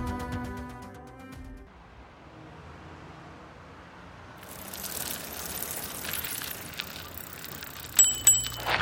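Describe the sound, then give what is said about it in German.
A fast bicycle rolls past beside a cemetery with a steady whirring, rattling hiss that grows louder midway. Two quick, high bell rings come near the end, and a brief tonal chime opens the sound. “und er mit seinem Velo neben dem Friedhof durchfährt.”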